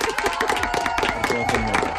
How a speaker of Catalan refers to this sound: Mira, un altre aplaudiment avui Bravo. per... Bravo!